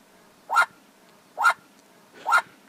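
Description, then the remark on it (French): Three short, harsh calls from a group of Australian magpies, evenly spaced about a second apart, moderately loud against a quiet background with no talking. “C'est une bande de pies australiennes”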